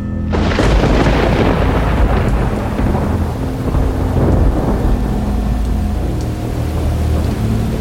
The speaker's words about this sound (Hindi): बादल गरज रहे थे बरसात अभी भी उतनी ही तेज हो रही थी